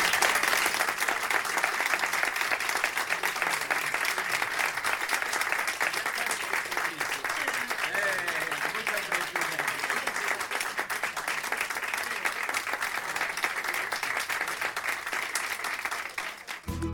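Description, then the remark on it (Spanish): Steady, dense applause from a crowd, many hands clapping in a continuous, even roar that holds at the same loudness for about sixteen seconds before cutting off abruptly, with faint voices mixed in. “Un aplauso enorme.”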